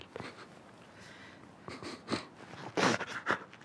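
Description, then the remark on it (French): A father sobbing, with irregular wet sniffs and shaky, gasping breaths coming in uneven bursts, louder toward the end; no one speaks. “Mon père sanglotait.”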